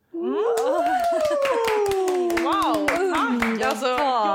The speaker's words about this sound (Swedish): Så med stort, en stor applåd